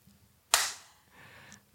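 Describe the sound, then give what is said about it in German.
One sharp, loud hand clap cracks out on its own, its bright smack fading quickly into a quiet background with a faint low hum. “achso, du musst noch klatschen.”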